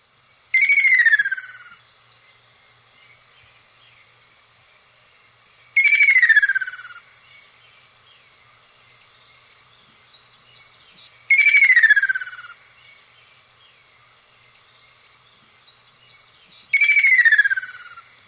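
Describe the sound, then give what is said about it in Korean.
A red-feathered summer bird that lives mainly by water gives a trilling call like a patter of falling rain: four clear, descending rippling phrases, each about a second long, repeated at steady intervals of roughly five seconds, with quiet pauses between. “이름도 예쁘고 또 이 새가 울면 꼭 비오는 것 같이 쪼르륵 쪼르륵 하니까 음.”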